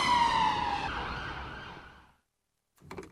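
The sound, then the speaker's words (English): A police car siren wails loudly, its pitch dropping as it passes, then fades away over about two seconds into silence before a short burst of noise at the end. “Um, jo- jo- we were joined by a police car, um, hopefully not, I don't think it was an ambulance passing um, at the opportune moment.”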